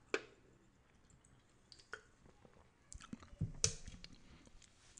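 Someone takes a few small sips of water: soft, irregular mouth clicks and gulping sounds, quiet and scattered across a few seconds, with no talking.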